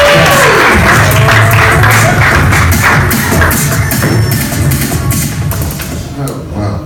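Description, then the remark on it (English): An audience at a comedy show claps and cheers loudly as comedian Brian Simpson is called to the stage, a dense, steady wash of many hands with whoops mixed in, holding strong for several seconds before easing off slightly at the end. “Make some noise. Clap it up.”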